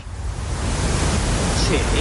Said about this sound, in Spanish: El ruido marrón lo utilizamos para enmascarar sonidos de bajas frecuencias, como puede ser el tráfico.